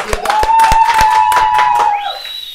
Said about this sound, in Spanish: Amigos, vamos a parar para aplaudir porque estamos en 300 personas.